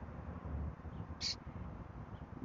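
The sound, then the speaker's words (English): A single short, sharp bird call rings out once against a quiet outdoor background with a faint low rumble; no one speaks. “Birds chirping.”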